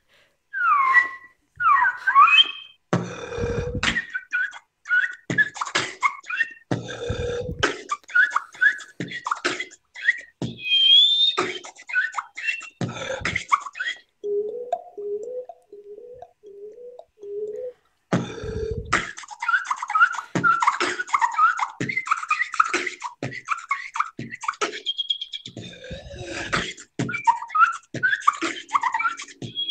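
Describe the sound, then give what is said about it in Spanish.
A solo vocal beatbox in the whistle and air style: quick, chirpy whistles that sound almost like birdsong, punctuated by sharp breathy air bursts and clicks, with a brief lower rhythmic buzzing pattern midway before the whistling resumes. “mi otro estilo de beatbox, que sería los silbidos y toda la parte de aire en sí.”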